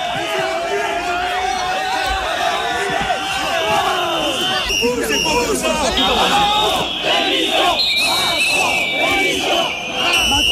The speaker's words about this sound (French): voilà, des sifflets, des, des insultes et de nombreuses scènes d'une rare violence. Emmanuel Macron forcé de déambuler dans les allées avec un large périmètre de sécurité autour de lui